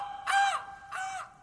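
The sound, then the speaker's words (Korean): Two harsh, raspy crow caws, a sound effect played after a dad joke, each about a third of a second long with a brief gap between them. Fairly loud, with no voices underneath. “아 이게 아재 개그 하면 나오는 소리래요.”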